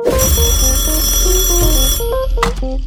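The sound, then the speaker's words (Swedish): A loud, bright electronic ringtone plays alone, a rapid melodic pattern of short tones repeating over a few seconds, like a phone signaling an incoming call. “Fan, eh, jag blev ändå ändå sugen på att ta ett sista samtal?”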